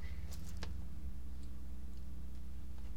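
A clock ticks with a few sharp, quiet clicks, mostly early on, over a steady low hum. No one speaks.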